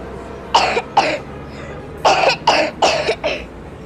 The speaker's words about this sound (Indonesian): Tuh kan, batuk terus. Mama lepas ya maskernya.